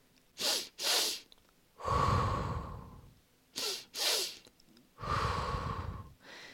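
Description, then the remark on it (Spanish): Two quick, sharp sniffs in through the nose followed by a long, slow exhale through the mouth, repeated twice in a steady breathing pattern, clear with no talking. “Y este consiste en una doble inhalación por la nariz y una larga exhalación por la boca.”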